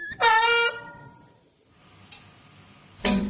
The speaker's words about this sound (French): un frein qui grince, des rayons qu'on frappe, et c'est parti.